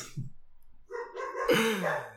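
A dog barks after a brief quiet moment, giving a couple of sharp, tonal barks that run into a longer, drawn-out yelp.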